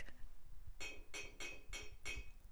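Kegel balls worn inside the speaker's lower abdomen clicking together as she rocks on a chair: five sharp, hard clacks in a steady, evenly spaced rhythm, fairly quiet, with no one talking.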